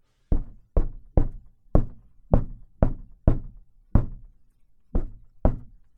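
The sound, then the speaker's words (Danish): A series of ten hollow knocks on a thin car body panel of a pharmacy car, struck at an uneven, unhurried pace as a test. Each hit is fairly loud with a short, papery resonance and no voices. “Jeg lavede lige en test af det tidligere i apoteksbilen. Prøv, prøv at høre.”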